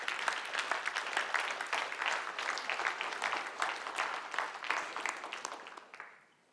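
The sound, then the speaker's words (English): A standing crowd claps for the Lord together in a dense, steady burst of applause with many overlapping hands, holding strong for several seconds before tapering off quickly at the end. “Go on, give the Lord a clap.”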